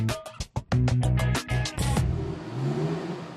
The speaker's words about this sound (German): fährt den Wagen in die Prüfhalle und testet die Bremsen